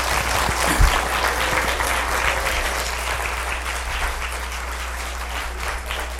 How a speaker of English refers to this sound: There's a couple people that aren't able. To, go ahead and clap for them. Go clap, ladies.